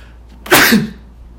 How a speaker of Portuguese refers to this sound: ah, você queria coçar o nariz, espirrei.